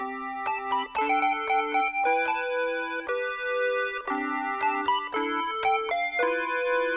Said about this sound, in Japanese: 今日はね実はおもちゃの小さな小さなミニ鍵盤をこのスタジオに持ってきてるのでちょっとねそれで街頭部分を弾いてみたいと思いますこんな感じです